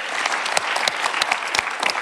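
A steady burst of audience applause for a performing artist on a show, many hands clapping in a dense, crackling wash with sharper individual claps popping out, sustained and fairly loud throughout with no voices.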